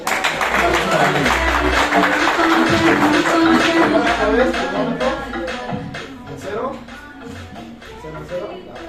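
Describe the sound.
An audience applauds with dense, steady clapping that holds loud for several seconds before easing somewhat, with voices murmuring underneath.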